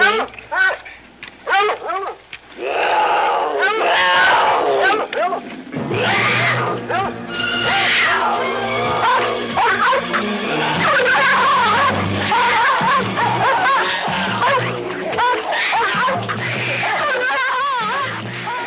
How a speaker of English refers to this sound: Do you think the Hollywood world would frown on a real mountain lion and a dog fighting today? Clearly, in 1974, this wasn't an issue.